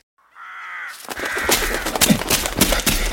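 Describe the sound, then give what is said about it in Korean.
A single drawn-out, harsh crow caw sounds on its own, followed by a loud burst of rough, scratchy noise that continues and swells until the end. No one speaks. “이놈의 까마귀가 이쪽에서도 숨차게 뛰어 다우쳤다.”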